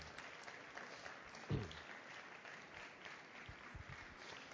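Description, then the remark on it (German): Sustained applause from a crowd at a comic award ceremony for the second-place winner, a dense steady patter of many hands clapping throughout, with a brief louder burst partway through and a few faint low thumps near the end. “Das ist schön, da ist der Applaus länger.”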